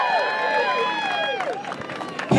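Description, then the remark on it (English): A group of Coakley associates (employees of the Coakley company) yells and whoops together in a loud burst, several voices rising and falling over one another in excited cheers that carry on steadily for a couple of seconds. “Have a yell from the Coakley associates, yeah!”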